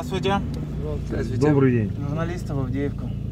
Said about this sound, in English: When you drive out to the front lines in eastern Ukraine, you have to leave early. For much of the trip, my car is the only one on the four lane highway. We slow down just to pass through each Ukrainian army checkpoint.